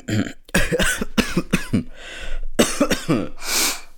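Someone coughs and chokes after a sip of water: a rapid run of harsh, strained coughs and sputters, a brief pause, more coughing, then a raspy breath at the end.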